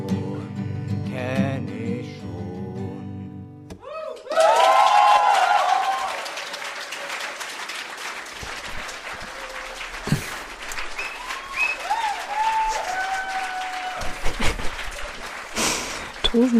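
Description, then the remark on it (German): After a short stretch of music, a crowd bursts into loud, sustained applause with dense clapping and some cheering and whistles, continuing for over ten seconds as it gradually thins; recorded live in 2004 at a reading of a writing workshop (Schreibwerkstatt). “Applaus, zu Recht.”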